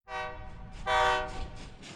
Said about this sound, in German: Ah, ich glaube, wir nähern uns dem Bahnhof.